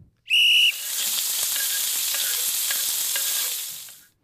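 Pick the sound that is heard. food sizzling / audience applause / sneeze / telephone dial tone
food sizzling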